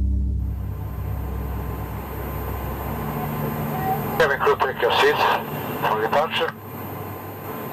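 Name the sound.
airplane taking off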